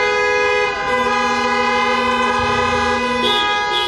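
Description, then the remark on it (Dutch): Car horns honk loudly and continuously at night, their bright, buzzy tones overlapping and shifting in pitch as one blast gives way to another, with no voices present; about 155 honks were counted between midnight and 6 a.m. “Tussen middernacht en 6 uur ochtends werd er zo'n 155 keer getoeterd.”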